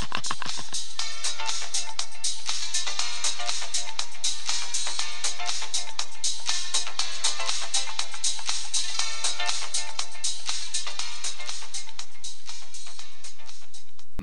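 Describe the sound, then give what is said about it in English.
A bright, electronic cell phone ringtone melody plays loudly and steadily for several seconds, its tinny notes repeating in a quick, busy pattern with no voices over it. “Isn't it amazing what a cell phone can do?”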